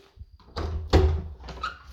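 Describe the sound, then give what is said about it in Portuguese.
A door is opened to let in Duque: a soft click and low thump, then a louder latch clunk and a rush of movement, followed by faint rustling and a short squeak. “Enquanto eu estou gravando aqui para vocês, eu vou abrir a porta para o Duque, porque ele não estava aqui.”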